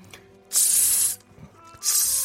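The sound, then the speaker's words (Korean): Beef sizzles on a grill in two loud bursts of bright, crackling hiss, each starting sharply and fading, separated by a brief quieter gap with faint low clatter. “자 고기 꼽는 소리 드릴게요.”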